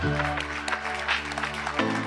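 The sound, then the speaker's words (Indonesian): Steady audience applause for Bank Indonesia Governor Peri Warjio, a dense wash of many hands clapping throughout, with a sustained low tonal hum or voice underneath that shifts near the end. “Luar biasa tepuk tangannya yang meriah Bapak Ibu sekalian.”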